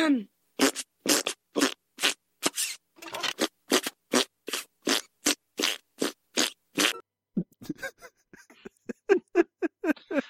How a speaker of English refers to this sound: I'm sorry. I'm going to laugh at armpit farts. I mean, I'm not I'm not above it.